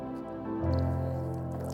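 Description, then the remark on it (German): A brief sip of water: soft wet squishing and a swallow lasting under two seconds, with no one talking. “Schlau, ich brauche für die Stimme Wasser und so.”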